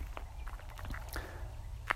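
human body sound, footsteps

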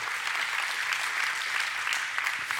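crowd, audience clapping

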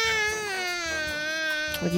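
human body sound, baby crying

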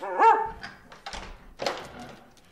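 animal, dog barking

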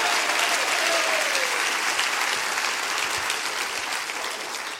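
crowd, audience clapping their hands

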